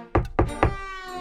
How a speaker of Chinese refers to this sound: 狐狸家门口传来了一阵敲门声。